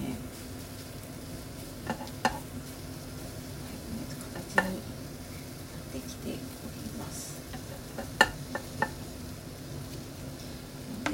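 Food hisses softly in a pan while a utensil scrapes and taps against it every few seconds as breakfast, including an omelette, is cooked, a steady low bed with sharper clinks scattered throughout.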